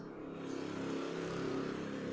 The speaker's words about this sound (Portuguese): E tá vindo outra moto que vem um trator junto, ó. Escuta.